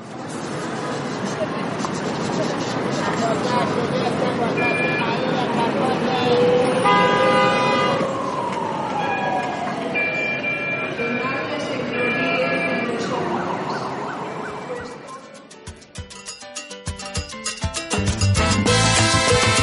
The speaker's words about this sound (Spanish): Hola, yo soy la esquina de la Oriental con Ayacucho y te invito a que cierres los ojos y abras la imaginación para que veas mis sonidos.